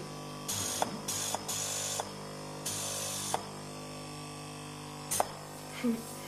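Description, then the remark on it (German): A cold-air compressor, a kind of hair dryer, hisses in several short blasts of rushing air to dry a special adhesive for electrode wiring in the sleep laboratory of the Rudolf-Virchow hospital, Charité campus, Wedding. It stops and restarts irregularly over a low steady electrical hum, with a few faint clicks between bursts. “Das ist so eine Art Kaltluftkompressor oder auch Föhn. Also das ist das Hauptgeräusch und dann, also das, das ist dieser Föhn.”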